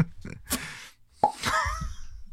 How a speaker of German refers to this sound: Das war ein Plop mit dem Mittelfinger. So, für alle Hörer.